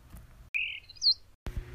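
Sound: small bird chirping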